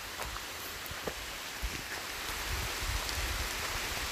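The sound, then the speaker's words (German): A phone is rubbed against the seat of a person's trousers, making a steady scratchy rustle with a few soft bumps, slightly louder toward the end. No one speaks. “so hört sich das an, wenn man an meinem Arsch gerieben wird.”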